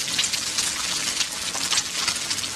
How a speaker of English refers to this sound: Now, by the way, that was oil in a frying pan, and then the egg came down into the frying pan and is now frying. Yeah, that's what's going on here.